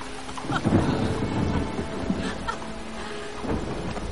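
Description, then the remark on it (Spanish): Steady rain pours down on a street in a dense, hissing wash, with low rumbling swells and a few brief splashy bursts, continuous throughout, no voices. “En la calle Malcolm y Evelyn corren de la mano bajo la lluvia.”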